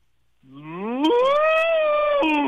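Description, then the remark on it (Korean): A person on a phone call imitates the moo of Korean Hanwoo cattle: one long, sustained lowing call that starts low, rises sharply in pitch, then holds loud and steady before dipping near the end. “자 한우 다시 한번요.”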